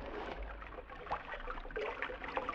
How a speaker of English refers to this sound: I'm thirsty. You better not drink out of that water. It's probably poison. Why? Hold the light. I'm going to have a drink.